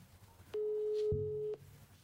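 A single steady telephone ringing tone sounds through a speakerphone, a flat electronic beep lasting about a second with a soft click at its start and end, followed by quiet line hiss.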